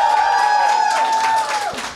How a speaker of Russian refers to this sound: Он очень волнуется. Похлопайте ему, пожалуйста.